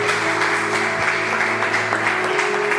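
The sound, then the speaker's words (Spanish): An audience at a church service applauds the Lord for the life of their pastor, a dense, steady wash of clapping hands at a loud, even level throughout, with a low sustained hum running underneath and no voices standing out. “Vamos a darle un fuerte aplauso al Señor por la vida de nuestra pastora.”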